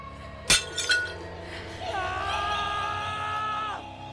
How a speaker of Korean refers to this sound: 그런데 뒤쪽에서 와장창 하고 깨지는 소리와 함께 오빠의 비명소리가 났습니다.